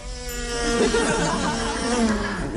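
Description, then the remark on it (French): A voice mimics a flying housefly's buzz, a sustained nasal drone with a wavering pitch that swoops up and down, loud, lasting a couple of seconds. “La mouche vole.”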